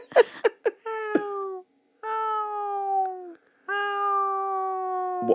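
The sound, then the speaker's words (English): A person does a drawn-out cat meow impression, three long wavering mews after a few short breathy clicks, fairly loud with brief pauses between them. “All right, give me your cat voice.”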